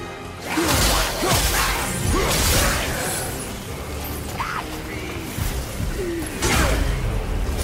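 Kratos's chained Blades of Chaos, attached by heavy chains to his forearms, whip through the air in a loud, dense flurry of whooshing swings and crunching slashes as he cuts through icy Draugr enemies, with metallic clatter and heavy impacts landing in uneven bursts throughout.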